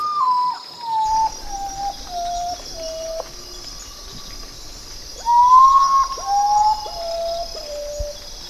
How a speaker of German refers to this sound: Und zu diesem wunderbaren Start des Radiokunstfestivals Radiorevolten in Halle möchte ich natürlich auch einen Vogel beisteuern, der mir irgendwie aufgefallen ist im Sinne von seltsamer Lautäußerung.